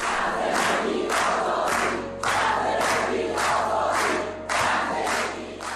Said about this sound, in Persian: معترضانی که همین یه سال پیش در خیابونای شهرهای مختلف ایران فریاد میزدند زن زندگی آزادی.